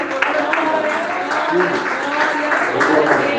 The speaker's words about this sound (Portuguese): Os irmãos podem sentar, desocupa suas mãos e glorifica Deus com as palmas, com alegria, glória a Jesus.